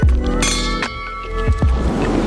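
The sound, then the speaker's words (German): Wine glasses clink together in a toast, several bright ringing taps in quick succession, clear, with the chimes lingering briefly after each strike. “Hoch die Gläser und viel Spaß mit Jule und Anni. Cheers.”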